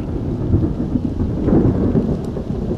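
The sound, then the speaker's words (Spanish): A thunderstorm rumbles low and steady in the Ordesa canyon, the thunder rebounding off the canyon wall, with the patter of rain setting in beneath the deep roll of thunder. Dense and continuous throughout, with no voices. “Y ahí empieza a llover.”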